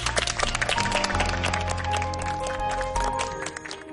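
An audience claps steadily for about four seconds, a dense crackling wash of many hands, with sustained musical tones underneath. The clapping thins slightly toward the end.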